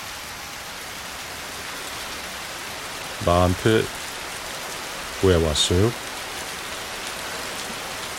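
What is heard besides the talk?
rain falling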